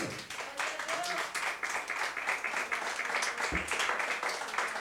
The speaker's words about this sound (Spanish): Dale ofrenda de palmas al Señor.